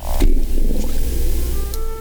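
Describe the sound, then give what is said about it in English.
A person's stomach growling, replayed louder with added reverb: a low, gurgling growl drenched in reverb, rumbling steadily for about two seconds with a few squeaky, whining tones rising near the end. Fairly loud, no voices. “Holy mackerel, I'm going to put some reverb on it.”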